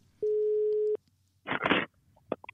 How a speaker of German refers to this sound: Der wird jetzt telefonisch zugeschaltet. Ich rufe an bei jemanden, den ihr kennt aus dem Fernsehen. Da klingelt's schon. Gleich geht er ran.